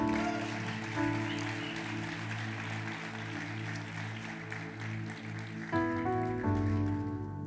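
Steady crowd applause fills the whole stretch, a dense crackle of many clapping hands over loud, sustained music, with the music shifting to a new chord near the end.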